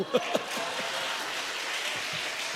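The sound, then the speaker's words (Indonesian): An audience claps steadily, a dense crackling wash of many hands held at an even, moderate level with a couple of sharper claps near the start and no speech. “Tepuk tangan dulu.”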